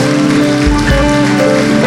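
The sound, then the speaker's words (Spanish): An audience applauding the Lord, a dense, steady wash of many hands clapping at once that holds an even loudness throughout, with faint sustained musical tones underneath. “Dele un fuerte aplauso al Señor mientras aplauda.”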